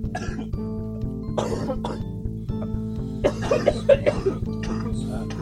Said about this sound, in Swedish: Det här, avsnittet kommer heta Host. Helvete. Avsnittet då vi hostar.